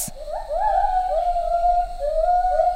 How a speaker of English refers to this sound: This is the sound of an individual Lar Gibbons singing. As you'll notice, some of the notes repeat in regular rhythmic intervals.